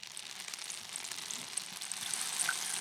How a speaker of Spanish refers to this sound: Mira, voy a mostrar un, un chicahuasla, o que es un palo de lluvia llamado, ¿no? Este es un palo de lluvia labrado en cedro y con piedras de, cuarzo. Entonces mm. tiene un, sonido muy...